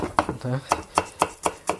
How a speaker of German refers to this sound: Also gebt euch ruhig schön erst in, in feine Streifen und dann diese feinen Streifen in ganz feine Würfel schneiden.